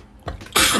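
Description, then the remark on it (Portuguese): A single loud sneeze: a short breathy intake builds into a sudden explosive burst that fades quickly, with no talking. “Saúde. Obrigada.”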